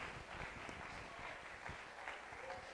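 An audience applauds for the Lord, many hands clapping in a dense, steady wash that holds at an even, moderate level for the full few seconds without building or fading.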